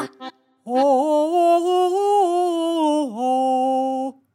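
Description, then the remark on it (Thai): A person voicing a cow, asked to sing along in an animal chorus to the chicken's tune, imitates a cow's moo, holding one long, loud, steady lowing note for several seconds with a brief dip near the end, after a couple of short sounds. “งั้นเราทุกตัวร้องประสานเสียงกันดูสิ ว่าจะเพราะไหมเอาทำนองแบบเจ้าไก่ร้องเมื่อกี้เลย ไหนเจ้าวัว”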